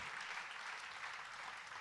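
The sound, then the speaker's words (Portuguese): A crowd claps steadily and continuously, applauding Jesus for the life of the apostle Paul, a dense wash of many hands applauding together at even loudness throughout, with no break or talking. “Você pode aplaudir Jesus pela vida do apóstolo Paulo?”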